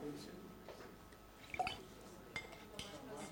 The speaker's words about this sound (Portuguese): Só por causa disso vou beber água.